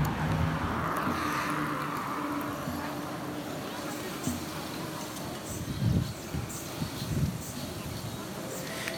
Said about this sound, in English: Perfect. Wonderful. That's a beautiful intersection here in the city, a, a car dominated intersection. Just beautiful. Wonderful. So relaxing.